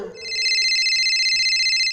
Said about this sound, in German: Ich warte die an meinem Telefon, bis mir jemand anruft